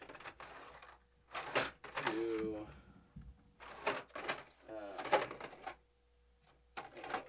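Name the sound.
rummaging through drawers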